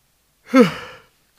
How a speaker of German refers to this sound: dass wir das Verhalten anderer imitieren wenn ich jetzt gähnen würde in die Kamera und du würdest hier im Raum sein.